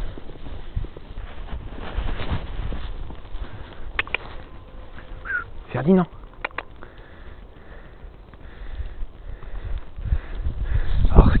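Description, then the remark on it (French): Black donkeys, one named Ferdinand, snuffle and sniff, with soft shuffling movements through snow in a snow-covered park, while a person briefly calls out partway through against a steady outdoor background. “assez euh, amusant, c'est que c'est des ânes noirs sur la neige blanche.”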